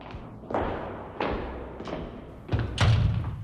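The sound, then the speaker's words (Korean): A heavy steel door at the top of a flight of stairs is opened and closed as people enter the independent bookshop Your Mind: a run of resonant metallic thuds and clunks, about five, irregularly spaced, ending with two louder bangs over a low rumbling background. “계단을 올라 무거운 철문을 열고 들어서는 사람들.”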